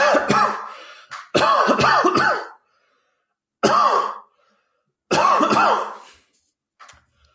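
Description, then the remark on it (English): A loud coughing fit: harsh coughs come in several rapid clusters separated by brief pauses, ending with a faint final cough. No one speaks. “Unfortunate that apparently you had a coughing fit right before it, but we only do one take here, so uh, go ahead.”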